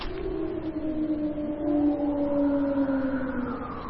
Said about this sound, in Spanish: Otra veces ese aullido, o lo que sea. Suena con eco. O puede que sean dos. Suena más cerca.